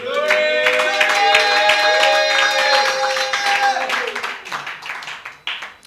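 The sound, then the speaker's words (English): A church audience claps steadily as a clap offering to the Lord, a dense stream of hand claps mixed with sustained high cheering and whooping voices, the cheers fading after a few seconds while scattered claps carry on. “Give the Lord another mighty clap offering.”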